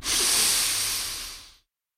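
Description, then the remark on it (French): A fizzing spritz gives off a bright, steady carbonated hiss for about a second and a half, loud, then fades out quickly into silence. No voices are present. “des spritz qui pétillent”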